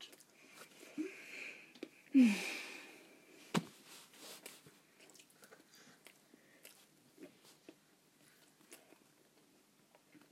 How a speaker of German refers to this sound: Sorry, dass ihr uns vielleicht beim Essen zuhört.